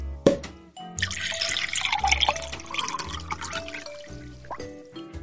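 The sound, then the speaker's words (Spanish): A bottle of chilled chacolín wine is opened with a short pop, then liquid pours and gurgles steadily for several seconds, fairly loud, followed by a few faint clinks and swallowing sounds as a generous swig is taken. “Primero procederemos a abrir la botella de chacolín y nos pegaremos un trago bien generoso.”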